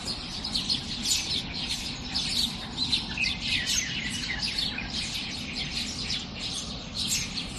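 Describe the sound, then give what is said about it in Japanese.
A dense dawn chorus at about 4:30 a.m., recorded on a smartphone at home from outside the window during the Shōman season: many birds chirping and trilling over one another in a continuous, busy tangle of high-pitched calls, with a steady low background hum beneath. The chorus lasts about 30 to 40 minutes each morning. “窓の外で聞こえた音ですね、はい、朝だいたい30分から40分ぐらいこのような、まあ、鳥たちが非常に元気よく歌比べをする時間が毎日あるんですね”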